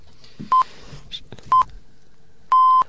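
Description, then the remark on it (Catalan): Hourly radio time signal pips: two short, clean electronic beeps a second apart, then a longer final tone, loud and steady against a faint murmur of background noise. “ara que els senyals horaris eh, han, Com li agrada marcat, eh, aquí a silenci eh, l'inexonabilitat del temps eh”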